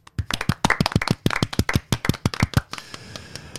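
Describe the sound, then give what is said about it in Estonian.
A small group in Tartu claps for a couple of seconds after a cup winner's 3-0 result is announced, a quick run of sharp, distinct hand claps that stops abruptly and leaves a faint hiss. No one speaks. “teeme väikese aplausi ka siin, kuna me oleme Tartus ikkagi ja meil on üks Tartu inimene ka”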